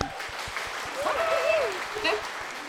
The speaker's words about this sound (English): We all are clapping.